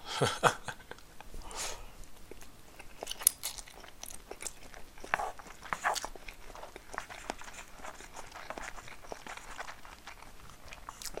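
Crunchy chewing and biting of food while eating lunch, with repeated irregular crisp crunches and softer mouth sounds continuing throughout, no talking.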